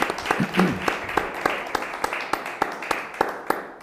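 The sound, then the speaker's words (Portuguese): Applause: a steady run of sharp, crisp hand claps at an even, brisk pace, about a dozen in a row, fairly loud, with a brief murmur of voice near the start. “Sobram-me palmas, percebeste?”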